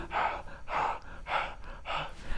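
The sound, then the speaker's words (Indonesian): Rapid, heavy panting with four strong breathy gasps in a steady rhythm, fairly loud, from a panicking, frightened woman struggling to catch her breath. “yang tengah apa ya panik ya panik ketakutan yang napasnya ngos-ngosan gitu”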